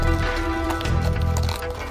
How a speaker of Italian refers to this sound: Esatto, questo zoccolio di cavalli, diciamo, no